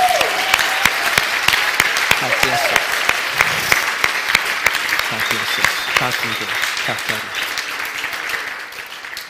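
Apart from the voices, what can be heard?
big round of applause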